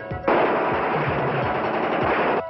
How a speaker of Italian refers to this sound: Ci sparano con l'artiglieria!